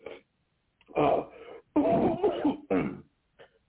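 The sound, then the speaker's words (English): A person with a dry throat clears their throat and coughs in several rough bursts spread over a few seconds, with short pauses between them and a faint trailing sound at the end. “I get these these coughs that are they seem unnecessary, but you know, um, you know, I'm just you know a little dry.”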